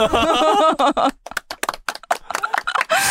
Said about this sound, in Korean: 아, 이 박수 받을 건 아닌데.